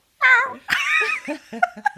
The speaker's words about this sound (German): ja, ich habe die Katze. Ich kam gerade rein und hat sie mich anmiaut, weil sie freut sich immer, wenn sie mich sieht.